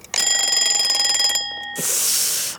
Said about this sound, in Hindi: अबे यार अलार्म फिर से लेट बजा